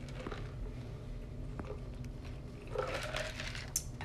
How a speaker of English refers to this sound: Whew, sorry, I had to get a sip.